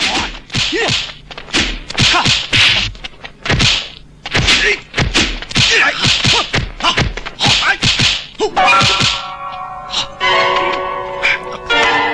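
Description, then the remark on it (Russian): A rapid series of sharp, loud punch and whoosh effects, like a movie fistfight, with heavy thwacks and whips in quick bursts, ending in a ringing metallic tone. “ну, опять же, когда мы говорим фильм о драке, это что? Мы сразу по звукам можно было догадаться, э, что происходит на экране.”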